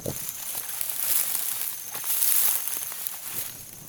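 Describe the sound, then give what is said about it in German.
Dry, crackly rustling of footsteps walking through dry grass while stalking, a steady hiss with soft crunches of steps scattered through it, fairly quiet, with no voices. “Das trockene Gras macht so einen Lärm beim Laufen.”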